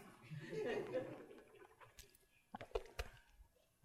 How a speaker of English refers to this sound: I need to drink some more water. Hold on a second.